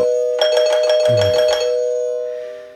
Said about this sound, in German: Ja, wenn der Vertreter zweimal klingelt.